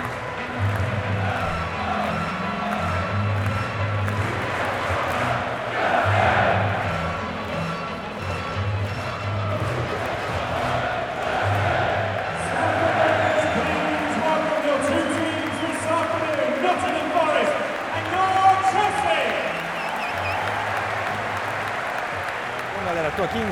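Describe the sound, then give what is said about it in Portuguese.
A large football crowd, including Nottingham Forest fans, sings chants together at Stamford Bridge during a Chelsea versus Nottingham Forest match, in a steady, rhythmic roar, the massed voices rising and falling in repeated phrases over constant stadium noise for the whole stretch. “Pegar algumas músicas da torcida e tal, um pouco do ambiente aqui para o podcast, né?”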